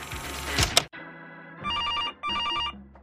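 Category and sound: signal or alarm, telephone ringing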